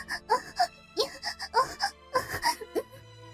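A woman moans in a rapid series of short, breathy, high-pitched vocal bursts, rising and falling in an uneven rhythm, fairly soft, with no spoken words.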